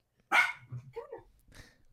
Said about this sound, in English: Carter, we might have to edit these doggies out.